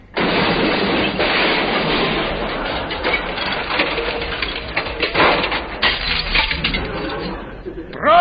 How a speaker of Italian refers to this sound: Abbiamo mandato in onda dal vivo lo schianto della macchina che è qui sotto, appunto, che è andata a schiantarsi contro un palo.